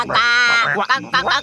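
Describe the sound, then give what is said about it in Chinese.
A voice imitates frogs croaking, with a long nasal croak followed by a few shorter, choppy croaks in a loud, buzzy rhythm. “他在路上走着走着，突然看到青蛙们在一片沼泽里，并且呱呱呱的叫着。”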